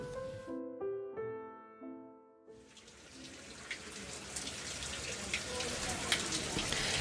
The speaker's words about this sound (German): Heute bin ich in Heilbronn, die sechstgrößte Stadt in Baden-Württemberg, direkt am Neckar gelegen. Aber das, was hier so plätschert, ist nicht der Neckar.